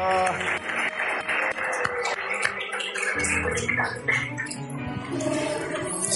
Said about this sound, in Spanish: ¿Cuántos líderes que están bajo esta cobertura espiritual quieren aplaudir en esta noche? A ver los líderes. Eso.